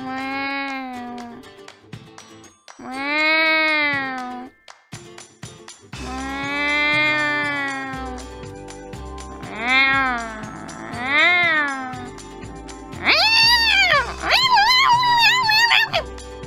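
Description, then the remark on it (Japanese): A woman's voice imitates a cat, giving a series of about six drawn-out meows, the last ones higher and more excited, with soft background music joining partway through. “今日、2月22日は猫の日ということなので、私も猫になってみようと思います。”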